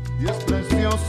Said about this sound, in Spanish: Eso es lo que está sonando de fondo música que nos llega desde Barcelona en esta mañana salsera